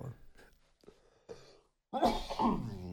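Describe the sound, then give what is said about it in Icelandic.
Soft murmured talk, a short silence, then one loud cough bursts out and trails into a rough, throaty rasp. “það er eins gott að hóst ekki beint í hljónum en það er svona þegar maður vætir ekki hverkarnar”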